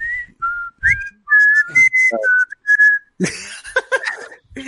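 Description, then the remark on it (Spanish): A person whistles a short, bright commercial jingle, a quick string of clear notes that rise and fall, followed by a burst of rougher, noisy vocal sounds. “Y silbando, silbando, silbando. Recuerda el silbido”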